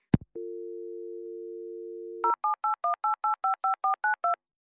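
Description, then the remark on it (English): A phone handset clicks, then a steady dial tone hums for about two seconds before eleven quick touch-tone beeps are dialed in an even rhythm to call the Tic Tac questions line, clear. “Should I try to call them now? Yes, call them now.”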